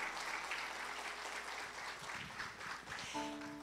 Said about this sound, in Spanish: Le damos otro aplauso al Señor, ¿verdad? Gloria a Dios.